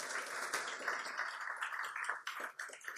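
An audience applauds the speaker's wife steadily for about three seconds, a dense crackle of many hands clapping at even strength, with a few sharper individual claps standing out near the end. No one speaks.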